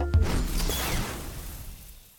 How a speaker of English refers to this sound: real quick, uh, what were the sound effects going on in there? Because I heard like the dribbling that sounded like you were peeing, which I assumed was you pouring water into a cup.